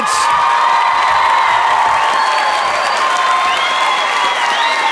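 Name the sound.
audience applause and cheering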